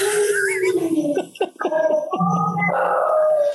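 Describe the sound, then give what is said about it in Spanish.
A dog howls in long, sustained, wavering tones that rise and fall, with a brief break midway before the howl resumes, loud throughout. “A mi perro no le gusta ese pinche.”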